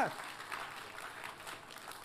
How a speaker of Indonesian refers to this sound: Boleh katakan amin. Kita kasih tepuk tangannya yang paling meriah buat Tuhan kita.